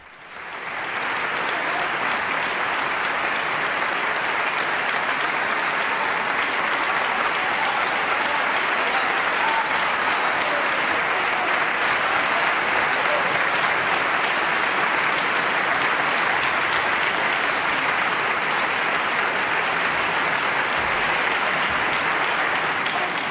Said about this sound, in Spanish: Escuchemos los aplausos porque todos estamos en este teatro.